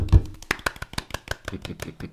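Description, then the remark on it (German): Quick, fairly steady hand claps patter for about two seconds, like a short burst of applause from one or a few people after a quiz score is announced, with a dull thump near the start. “Coronas! Wuhu! Applaus!”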